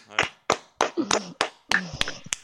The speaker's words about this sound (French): Ça mérite des applaudissements.